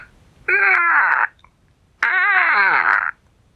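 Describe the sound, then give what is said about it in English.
Two loud, raspy squawking calls, each sliding downward in pitch, with a brief pause between them; it sounds like a voice imitating a strange bird's squawk, alone. “And then he heard a strange squawking sound.”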